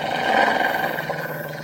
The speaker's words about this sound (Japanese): 恐る恐る、うなり声のする方に顔を向けると、とても大きな白い犬が、恐ろしい顔をして、牙をむいているのが見えた。